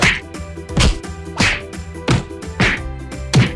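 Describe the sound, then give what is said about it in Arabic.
About six sharp stick blows land one after another at an uneven, roughly steady pace, each a loud whack with a quick swishing edge, over a soft sustained musical tone. “طلب ملك الاقزام من العملاق بطشان ان ينام على ظهره وامر عددا كبيرا من الاقزام ان يصعدوا على صدره ويضربوه بالعصي”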